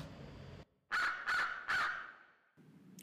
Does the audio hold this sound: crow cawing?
yes